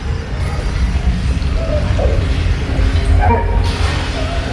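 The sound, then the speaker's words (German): An earthquake makes a loud, continuous low rumble that fills the whole stretch, with scattered crashes and clattering debris on top as heaps are destroyed and things break and tumble. “Zum Glück ertönte in diesem Moment wieder das Grollen von vorhin, lauter als je zuvor.”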